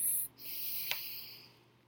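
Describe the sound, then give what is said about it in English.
A slow, soft breath drawn in through the nose during a guided breathing exercise, airy and hissy, alone with no talking, carrying on steadily for nearly two seconds. “Let's bring some awareness to our breath breathing in through the nose”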